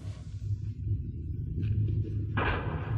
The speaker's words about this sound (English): Hey, that sounds like shots. Yeah, but what's that thunder? That's not thunder, partner. That's cattle on the move. Uh, that's Bolton's herding.